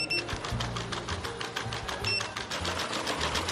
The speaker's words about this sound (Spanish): Así suena al caminar este pequeño robot de cuatro patas. Tefi debe su nombre a las siglas del Instituto de Tecnologías Físicas y de la Información, centro del CSIC, donde ha sido creado.